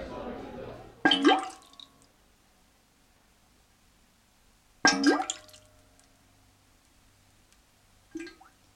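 Bubbling, watery percussive sounds in a percussion piece: two sharp splashy hits with ringing, fading tails, a few seconds apart, then a softer third hit near the end, with quiet gaps between.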